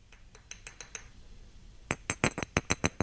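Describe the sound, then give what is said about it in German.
Small hard toy figurines of a corgi and the Queen clink together as if kissing: a few faint taps at first, then a louder, quicker run of about ten sharp clicks. No one speaks. “Also Achtung, Geräusch kommt. Ist ein Kussgeräusch.”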